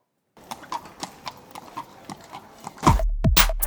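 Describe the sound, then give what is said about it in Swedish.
Horse hooves clip-clop in a steady, even rhythm, followed by a louder burst of snorting or whinnying near the end. “En häst.”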